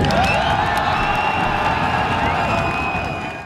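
A large stadium crowd at a football match cheers loudly and steadily, a dense roar of many voices with scattered whoops and shouts, holding strong before easing slightly at the end.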